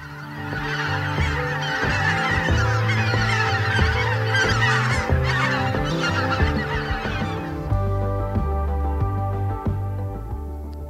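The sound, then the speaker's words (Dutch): A large flock of pink-footed geese calling together, a dense, continuous chorus of overlapping honks and yelps, loud, with no talking. “Ja, dat waren koolganzen.”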